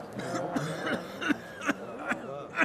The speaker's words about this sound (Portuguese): Depois andaram por ali às voltas. Conversaram em voz baixa. Um deles tossiu.